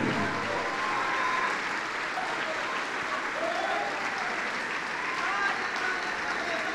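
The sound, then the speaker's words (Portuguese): A large crowd claps steadily throughout, a dense, continuous wash of applause filling the space with brief cheers or voices faintly mixed in. “Vamos aplaudir mais por cada vida que está chegando.”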